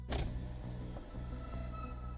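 The electric window of a huge truck parked at a bank's garage door rolls down with a steady whirring motor hum, starting with a soft click and running smoothly for a couple of seconds, with no voices.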